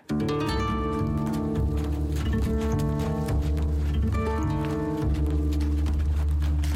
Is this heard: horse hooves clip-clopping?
yes